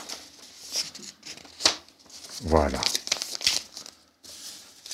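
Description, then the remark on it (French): Sheets of paper crinkle and rustle in several short, scratchy bursts as a man takes people's sheets from them, speaking briefly in the middle. “Vous voyez, ça, je vais prendre ta feuille. Ça, et je vais prendre la vôtre.”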